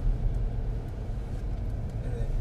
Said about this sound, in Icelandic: Við erum komin inn að fyrir utan smára liðning og erum, erum að fara að leggja bílnum.